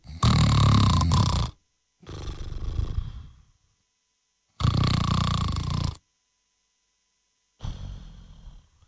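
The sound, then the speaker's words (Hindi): A voice imitates loud snoring: two rasping, rattling inhales each followed by a softer exhale, repeated twice with short pauses, with no other talk. “मैंने कहा one two three go चलो पहले बीच में रुक गया या रुक गई जो भी था मैंने कहा चलो फिर आवाज और कोई मजे के खराटे नहीं थे”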